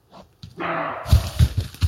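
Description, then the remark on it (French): A male roe deer barks aggressively in a forest at the start of the rutting season, having spotted a female: short, harsh, powerful bursts, several in quick succession after a rough rasping call, heard from afar, with no voices present. “Il a repéré la femelle et le fait savoir par des cris aboyés, brefs et puissants.”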